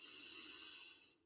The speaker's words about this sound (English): Second, three deep lion's breath. These are so freeing. So you let out your tongue and you make a funny face and you roar. They sound a bit like this. I'll take a deep breath in.